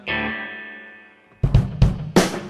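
A heavily distorted, slightly reverberant sound from a distorting microphone at the front with a little reverb added: a buzzing sustained tone slowly fades, then three loud, harsh crackling bursts break in, with no clear speech.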